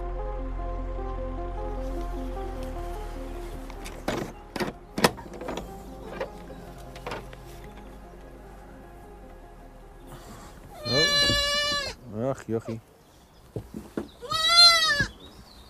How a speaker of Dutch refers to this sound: Een heel klein geitje. Hoe oud, is, hoe oud is deze nou? Acht dagen. Acht dagen. Dat is wel heel, heel eh, jong, hè? Ja, zijn eh, jonge bokjes, ja.